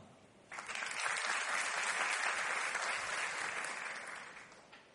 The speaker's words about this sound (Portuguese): Tá ficando mais fraca as palmas, tá? Ficou cansou? Gente, é, é, é aumentando o volume até o último. Não vai enfraquecendo não, vamos embora.